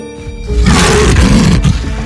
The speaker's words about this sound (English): The lion was furious that someone had disturbed his long awaited dinner he caught sight of Aaron and roared angrily